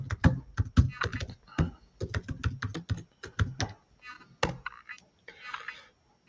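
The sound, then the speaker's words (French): Rapid typing on a computer keyboard as someone types out their email address, an uneven stream of sharp key clicks with brief pauses, ending in a few scattered taps and a softer rustle. “Je, t'écris mon mail.”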